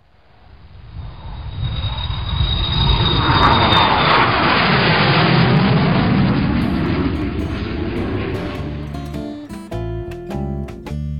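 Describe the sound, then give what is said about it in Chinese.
An airplane flying to Cambodia roars overhead, its broad engine rumble swelling and then slowly fading with a sweeping drop in pitch, before a few brief musical tones come in at the end. “做完攻略的话，就乘飞机过去了。”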